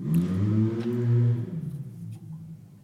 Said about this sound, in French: Enfin, j'ai pas entendu un bruit de moteur pendant tout le Grand Prix de France, et là maintenant, ça y est, ça fait des rupteurs, machin et tout.